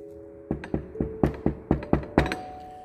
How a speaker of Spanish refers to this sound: hay un momento que toca la puerta de esta manera.